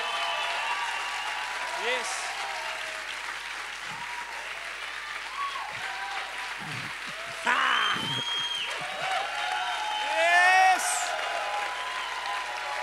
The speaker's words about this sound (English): Come on and clap. Хайде хора, о, ръкопляскайте, ако вярвате в това нещо.